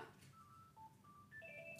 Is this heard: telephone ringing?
yes